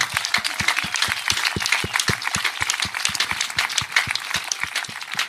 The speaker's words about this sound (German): Und ich bitte um einen ganz, ganz großen Applaus ja, mal für ihn.